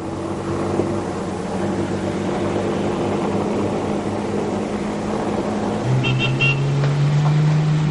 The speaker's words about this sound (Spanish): La marquesa llega en el coche.